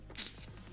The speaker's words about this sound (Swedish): Klickar ifrån oss reklamen.